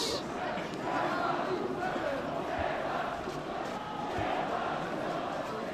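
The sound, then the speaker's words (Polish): A large crowd chanting slogans together in a street, a dense roar of many voices rising and falling in rhythmic shouts, loud and sustained throughout. “No i może też krzyczą nie ma chuja, bo tak jakoś mi to się układa fonetycznie.”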